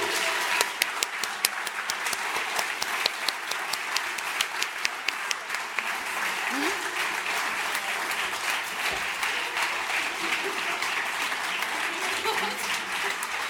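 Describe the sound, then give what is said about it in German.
Sustained applause from a sizable crowd as award recipients are called onto the stage to receive certificates, dense rapid clapping filling the whole stretch at steady volume, with faint voices and a few cheers mixed underneath. “Applaus!”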